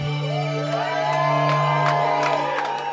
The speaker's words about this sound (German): Als Irwin Leschet dann um Punkt 23 Uhr zum letzten Mal den Regler runterzieht, die Lichter angehen und Applaus durch den Club dröhnt, sind überall verschwitzte und glückliche Gesichter.